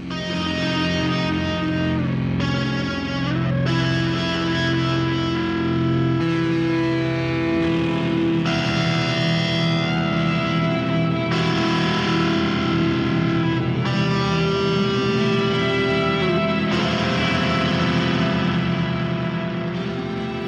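A loud, dense music track with heavily distorted, effects-laden tones and thick sustained harmonics, playing steadily for about twenty seconds with shifting chord sections and no voices.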